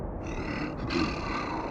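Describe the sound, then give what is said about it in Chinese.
A deep, rough animal roar, a polar bear's bellow in the icy, snowy Arctic, rumbles steadily for under two seconds, loud and sustained with a gritty, growling texture and no talking over it. “哇！是北极熊！”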